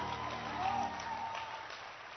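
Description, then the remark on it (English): An audience claps steadily for Jesus in a dense, continuous patter, with sustained musical tones humming underneath throughout. “Oh, if that clap was for me, please clap for Jesus.”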